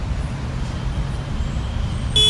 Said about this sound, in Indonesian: Ya Allah, macet banget nih.